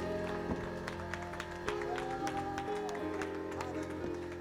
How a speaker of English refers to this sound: Oh, somebody give the Lord a hand clap of praise in Jesus' wonderful name.